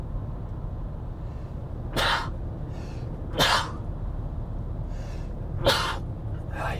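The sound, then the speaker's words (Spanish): Three sharp sneezes burst out a second or two apart, loud, from a person driving a car, over the steady low rumble of the car interior, with a few quieter breaths in between. “Voy a estornudar.”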